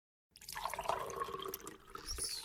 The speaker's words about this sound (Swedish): Jag ska fortsätta berätta om det här för er, men först ska jag bara hälla upp lite kaffe åt mig själv här.